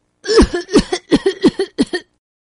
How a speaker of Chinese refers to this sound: 说完，他就冲着小狐狸的耳朵大声的咳嗽起来。